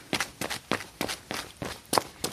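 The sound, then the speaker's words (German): Foley footsteps in high-heeled shoes: a steady series of about eight crisp clicks striking a hard floor at an even walking pace, with no voices. “Dafür zieht sich Martin Langenbach sogar Stöckelschuhe an”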